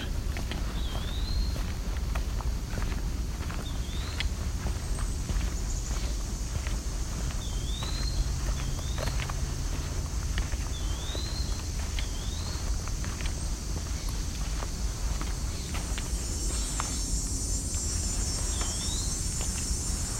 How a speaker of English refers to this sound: Let's go back and listen to this wood-pewee.